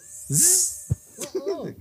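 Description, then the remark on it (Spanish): A voice imitates a mosquito buzzing at one's ear: one loud, hissy, buzzing burst lasting about half a second, followed by a short pop and a few brief vocal sounds. “Azul, pues, de esos que te hacen en la oreja así.”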